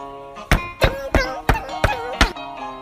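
Someone knocks on a door six times in a fairly steady rhythm, each knock a sharp, solid thud, while a soft melodic musical tone plays underneath; in a children's story, Mother Pig knocking at Apron Granny's door.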